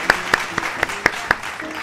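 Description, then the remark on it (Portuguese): Six sharp, evenly spaced hand claps ring out, a steady rhythmic clapping with a faint hum of noise underneath. “Palmas para quebrar o gelo.”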